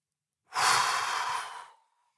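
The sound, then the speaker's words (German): A single long, audible exhale, a breathy whoosh of air pushed out steadily for over a second and trailing off softly, fairly loud with no talking, in a relaxation breathing exercise after a deep breath held for a count of five. “und atme laut aus.”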